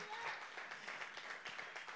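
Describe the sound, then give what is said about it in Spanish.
A church audience breaks into steady applause for its pastors and leaders, dense overlapping claps forming a continuous patter with a few voices calling out underneath. “Den un aplauso al Señor por sus pastores, los líderes que están aquí.”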